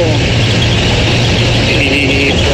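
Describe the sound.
Steady, loud road traffic with the low drone of heavy engines and a faint high squeal, as many heavy vehicles roll past continuously on a side road where traffic is diverted from a bridge on the 45 under maintenance in the municipality of Cocío; a voice may be faintly mixed in.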